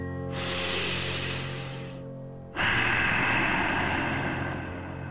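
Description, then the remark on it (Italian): Steady throat breathing with the mouth closed, the noise made by the throat narrowing and partly closing: two long, hissing breaths, the second a slow, raspy exhale that fills the end, over a faint constant low hum. “e adesso lo facciamo con la bocca chiusa.”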